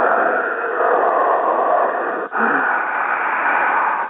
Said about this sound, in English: Sir, what is that hissing noise? That's my uh, Agent Orange lung. I picked that up in Vietnam.